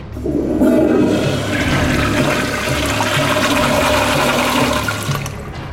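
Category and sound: household object, toilet flushing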